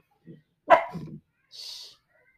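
A pet dog, Bella, sitting as if on guard, lets out one loud bark, preceded by a soft low grunt and followed a moment later by a short breathy hiss.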